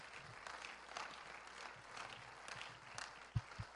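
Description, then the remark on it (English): A crowd applauds steadily in praise of God, many hands clapping together in a dense, continuous patter, with a couple of louder low thumps near the end. “If you believe that, can we clap our hands and praise him for it?”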